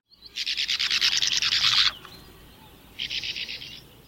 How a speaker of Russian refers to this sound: Береговушки называются береговушками, и по-английски sand martin